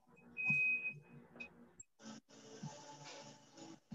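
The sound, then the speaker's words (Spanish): A washing machine sounds a clear electronic beep, one sustained high tone followed by a couple of short blips, then muffled background noise and indistinct voices carry on. “Ah, ok, en la lavadora.”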